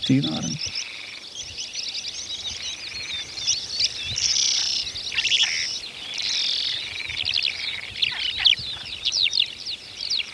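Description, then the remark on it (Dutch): A Sardinian warbler sings a fast, scratchy, chattering song in repeated rattling bursts across the whole recording, clear, with a brief low murmur right at the start. “Kleine zwartkop is ook zo'n vogel die heel veel voorkomt.”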